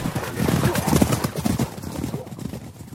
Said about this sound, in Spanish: como el indio yacente que ponía la oreja en tierra para oír caballos, galopantes y ariscos a lo lejos